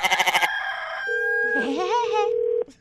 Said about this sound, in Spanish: Oiga, me hace favor de callar los gallos porque no deja dormir.